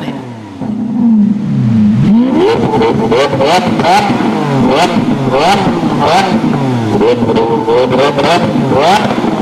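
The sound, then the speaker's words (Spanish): A voice imitates a Lamborghini car engine revving, with a low rumble followed by repeated rising and falling whines, loud, continuing for several seconds with no other talk. “Oigan cómo suena un Lamborghini.”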